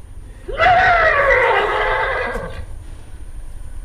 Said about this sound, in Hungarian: Ez egy szomjas ló nyerítése.